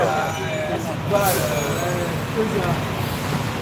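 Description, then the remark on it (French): A garbage truck rumbles with a steady low engine drone and a brief hiss like an air brake release partway through, while someone talks over the noise. The truck is arriving to collect the trash. “en tout cas, il y a le camion poubelle déjà qui vient les chercher, tu vois.”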